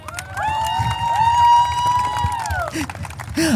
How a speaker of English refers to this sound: fireworks behind us. Are there really? Oh, that's awesome.